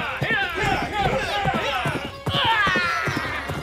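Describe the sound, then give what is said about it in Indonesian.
A ridden horse gallops with rapid, heavy hoofbeats as it struggles to leap across a trench, its shrill whinnies rising and falling over the pounding rhythm; the sound is loud, filling the short stretch. “Kuda yang ditunggangi Ikrimah dengan susah payah berhasil melompati parit.”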